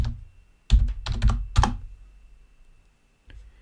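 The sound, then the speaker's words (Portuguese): Several loud, sharp computer keyboard taps clatter in a quick cluster, followed after a pause by a single faint mouse click as someone tries to open a window; no one speaks. “Tô olhando pro lado aqui que eu tô tentando ver o mouse para abrir aqui uma, uma janela para vocês.”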